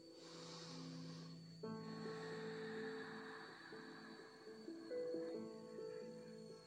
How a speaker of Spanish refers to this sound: Respiro profundo. Una respiración más.